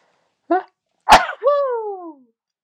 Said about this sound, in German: Jetzt muss ich niesen, Entschuldigung mal bitte.